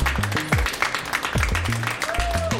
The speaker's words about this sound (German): Ich schreibe euch alle mit auf die Urkunde und auch das Publikum hier auf der Leipziger Buchmesse. Vielen Dank, dass ihr zugehört habt. Ihr könnt nochmal Applaus machen, vielleicht kurz, damit man hört, dass es echt live war.